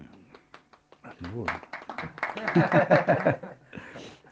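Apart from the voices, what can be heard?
applause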